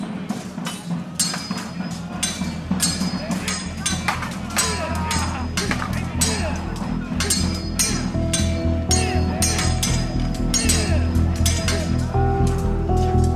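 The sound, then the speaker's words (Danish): Swords clash again and again in the distance as Vikings fight, quick, irregular metallic clangs and rings striking with enormous force, fairly loud and steady throughout, over a low rumbling din with voices shouting and roaring furiously in the background. “kan du høre lyden af svær, der rammer hinanden med enorm kraft.”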